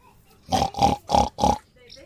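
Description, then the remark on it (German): A pig on a mountain grunts four times in quick, even succession, each grunt short, rough and fairly loud, followed by a moment of quiet. “Aber und das wollte ich gerade probieren hier mit den, mit den Schweinchen. Ja, da war ein Geräusch.”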